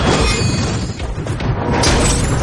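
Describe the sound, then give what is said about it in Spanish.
Howitzer shells are fired toward a forest and explode in a dense, continuous barrage, loud, with heavy booms blurring into a roaring wash of crashing debris and no voices. “Comienzan a disparar los obusos hacia el bosque.”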